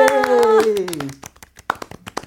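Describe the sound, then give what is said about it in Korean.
An audience claps in a loose, uneven patter of sharp slaps ahead of a live duet performed with guitar. A sustained voice slides downward in pitch over the first second, then the clapping continues alone, thinning into scattered claps. “박수 주세요!”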